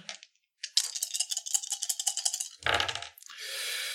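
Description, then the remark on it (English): Two red dice rattle rapidly in a hand or cup, a dense clattering shake lasting a couple of seconds, then tumble out with a louder knock and a brief hiss of rolling, fairly loud; a roll for a brawl skill check in a tabletop game. “And this is again against two red dice.”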